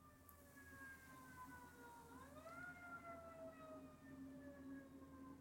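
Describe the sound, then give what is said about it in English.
A siren wails steadily outside, its pitch sliding down then rising again as it passes, with a low background hum and no talking. “I'm going to pause a minute while those sirens pass.”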